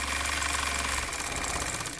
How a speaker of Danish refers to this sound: Så står vi her ved symaskinen.